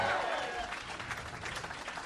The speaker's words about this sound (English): Give it up for Tony Hatchcock! Fort Worth, Texas, come on, make some fucking noise. We are here live at Hyenas Comedy Club, a chaotic audience.